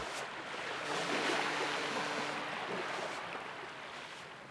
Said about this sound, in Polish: Zobacz, jak fale morskie zacierają twoje ślady na piasku wymazują je zupełnie tak, jak gdyby nigdy ich tam nie było.